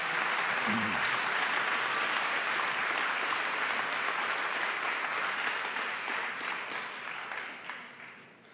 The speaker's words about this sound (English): If you're thankful for the cross, would you stand up today? Give the Lord a hand of praise if you needed this today.